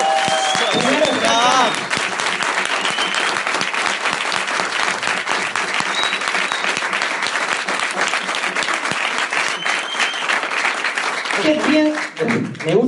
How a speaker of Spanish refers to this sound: ese aplauso.